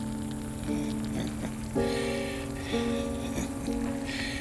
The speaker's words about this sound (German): Welch freundliches Plätschern.